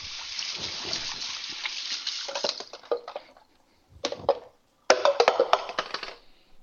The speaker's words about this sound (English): Wash my hands off again. It's getting it's kind of sticky.